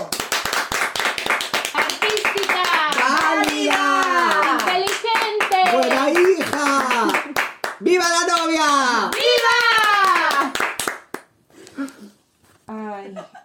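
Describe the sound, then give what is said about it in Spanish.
An audience applauds, many hands clapping in a dense, steady patter while voices call out over it, before the clapping thins out and stops near the end. “¡Aplauso!”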